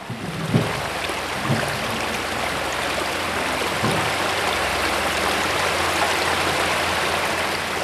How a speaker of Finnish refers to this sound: Tämmöinen puro, joka ei edes ole kovin leveä, niin tällä on yllättävän suuri merkitys tälle luonnolle, mikä tässä ympärillä on, ja sitten toisaalta sitten sen tasapainon ylläpitämiseen mikä, mikä tällä seudulla on.